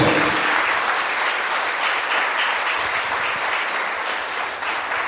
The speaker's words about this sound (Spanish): Gloria al nombre del Señor. ¿Qué tal si usted le da un aplauso a ese Señor que es creativo?